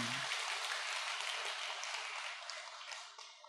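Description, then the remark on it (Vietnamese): A crowd at a temple gathering claps for a woman singer after her song, with dense, crackling applause throughout, holding fairly loud before tapering off slightly near the end; no one speaks. “À, bài hát của cô này ờ, có giọng hát của cô hát rất là ngọt ngào ấy quý vị chúng ta cho thêm chàng pháo tay nữa nghe ừ.”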